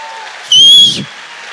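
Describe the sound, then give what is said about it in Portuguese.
An audience bursts into loud applause for a brief moment, with a shrill whistle or cheer riding on top, then it quickly falls back to a low murmur. “Dá um aplaudão aí bem bonito.”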